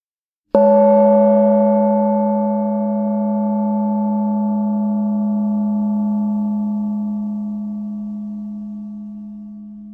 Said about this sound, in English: Oh, a little gong. okay. I'll put a little gong in.